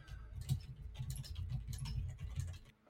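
Soft, rapid keyboard typing: irregular clusters of light clicks and taps at a low, steady level, with no voices.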